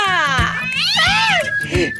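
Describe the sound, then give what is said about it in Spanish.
A cat meows loudly in a drawn-out, wavering yowl, followed by a shorter meow, over a faint rhythmic thumping in the background. “agárrame, agárrame, el gato.”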